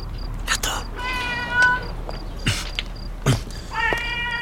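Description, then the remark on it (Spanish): A cat meows in two drawn-out, tonal cries, one early and one near the end, set against a low background hum with a few brief thumps and rustles in between. “Gato.”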